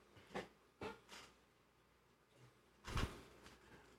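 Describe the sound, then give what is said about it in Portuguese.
A bedroom door is opened with a few short scraping, rattling bursts, then a louder thud or clunk near the end; fairly quiet, with no talking. “Pera só um pouquinho, deixa eu abrir a porta aqui.”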